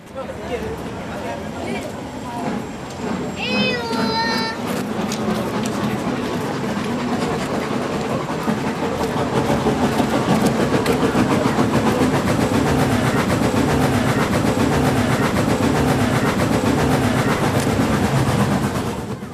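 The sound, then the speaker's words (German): A museum railway train, with a locomotive named after the Norse god of thunder, starts its journey without a whistle, its low rumble and rolling rattle building steadily and growing louder through the second half, with brief squeaky metallic tones early on. “Nach einer guten Viertelstunde beginnt die Fahrt.”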